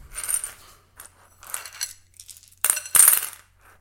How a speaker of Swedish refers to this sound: Det är metalltärningar i en metallskål.